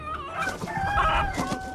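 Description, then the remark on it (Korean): A chicken that has flown onto a refrigerator squawks and crows loudly as a woman catches it with a large basket and throws it into the yard, its harsh, drawn-out calls overlapping in an agitated burst with no voices present. “어머니께서는 큰 소쿠리로 냉장고 위에 날아앉은 닭 한 마리를 잡아 채 마당으로 던지셨습니다.”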